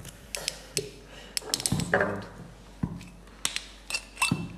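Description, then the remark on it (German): Sharp, irregular clicks and cracks of glasses, with a brief ringing glassy tone partway through, then more scattered snaps. No one is talking. “Knackt doch schon wieder super. Ach, knackige Gläser hier.”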